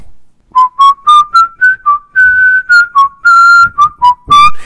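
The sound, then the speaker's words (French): Someone whistles a short tune, a leitmotiv that accompanies a criminal character in a film, a run of about a dozen clear notes, mostly short and evenly paced with a few longer held tones, and no one talking. “Pour la première fois, un leitmotiv accompagne un personnage dans un film.”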